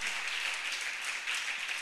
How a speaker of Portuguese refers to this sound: Glória a Deus. Você pode aplaudir a esse esse pai, esse pai maravilhoso.